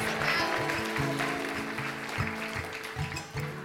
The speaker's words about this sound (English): So, angels, you can go sit down. Okay, let's give a round of applause for our angels and our Marys.